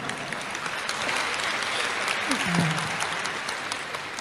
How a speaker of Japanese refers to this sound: 皆様大きな拍手をお願いいたします